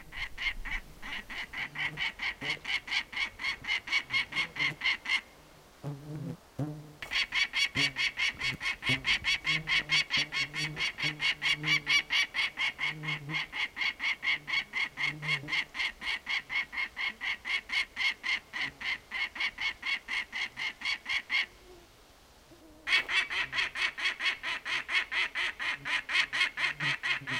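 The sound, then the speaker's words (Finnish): A peregrine falcon calls with a long, rapid series of harsh, grating cries, loud and echoing across a landscape, pausing only briefly twice before the insistent chatter resumes. “Muuttohaukan huuto kaikuu upeassa maisemassa”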